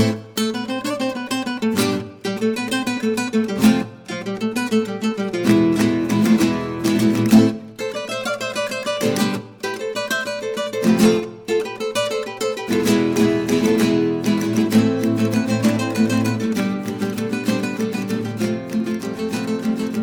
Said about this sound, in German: Aber bevor hören wir Flamenco-Musik.